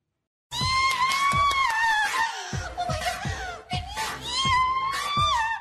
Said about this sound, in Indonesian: Kalian kenapa teriak?